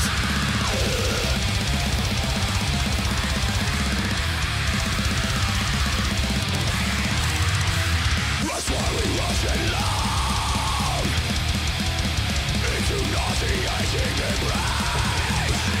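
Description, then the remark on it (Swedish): An older single of loud, dense extreme metal plays throughout, with heavy distorted guitars and pounding drums filling the mix while a clean, melodic sung vocal rises over the wall of sound, briefly breaking near the middle. “Så nu lyssnar vi på ….”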